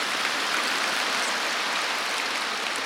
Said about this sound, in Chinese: 要鼓掌就鼓起来。